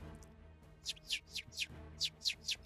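A small bird chirps in a quick series of about eight short, high tweets, grouped in bursts of three, sounding clear over a faint low hum, with no voices.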